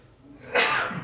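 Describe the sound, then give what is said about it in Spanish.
A single sneeze: a quiet intake, then a sudden loud burst of breathy noise that trails off over about half a second. “Salud.”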